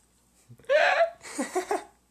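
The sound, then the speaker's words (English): A voice imitates a sharp, high-pitched hiccup, a loud squeaky yelp followed by a few quicker, lower hiccup-like bursts, otherwise quiet. “So my mom was hiccuping the other day and every time.”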